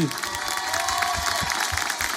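A live studio audience in the Fréquence Plus public radio studio applauds and cheers steadily for a live performance, dense clapping mixed with shouts and whoops, with no one speaking over it.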